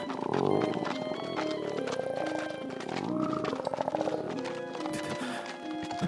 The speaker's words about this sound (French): Amaury est effrayé par un grognement étrange.